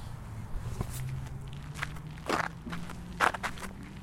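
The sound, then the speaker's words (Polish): Footsteps crunching along a gravel path in Ujazdowski Park at a steady walking pace, someone out for a stroll, with a low steady hum underneath and no talking. “Kroki po alejce w parku ujazdowskim.”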